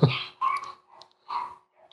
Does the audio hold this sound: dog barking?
yes